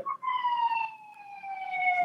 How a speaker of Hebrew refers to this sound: Uh, מישהו נפגע כנראה, ומגיע אמבולנס לקחת אותו.